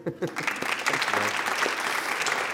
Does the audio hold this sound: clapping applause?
yes